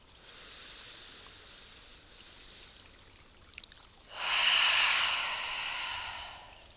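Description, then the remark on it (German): A slow, soft breath drawn in through the nose, followed by a louder, airy exhale through the mouth, unhurried with no talking. “Du darfst auch gerne stehen bleiben, lass deine Hände und Arme hängen und konzentriere dich zunächst auf deine Atmung wie sie durch die Nase einfließt und durch den Mund rauskommt.”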